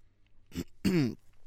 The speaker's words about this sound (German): verabschiedete sich, legte auf und räusperte sich.